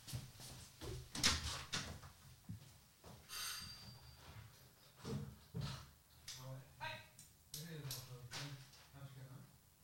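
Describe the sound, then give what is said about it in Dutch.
A front door is unlocked and opened for the postman, with sharp clicks and rattling knocks spread across several seconds, while muffled voices talk faintly in the background. “Ik ga alvast even de deur open doen voor de postbode.”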